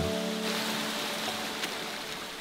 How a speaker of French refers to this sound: Comme unique bruit, la douce mélodie du vent et des petits ruisseaux traversés.